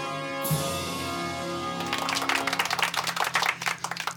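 An audience bursts into applause about two seconds in, a dense, crackly patter of many hands that keeps going to the end, over a steady tonal drone.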